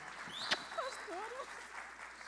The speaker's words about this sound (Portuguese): Tá, vai uma salva de palmas para ela.